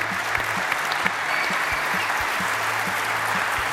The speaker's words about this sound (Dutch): Graag applaus